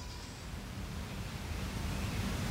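A soft, steady rush of ocean waves on a beach, a continuous low wash of surf with no distinct breaking crash, with no voices.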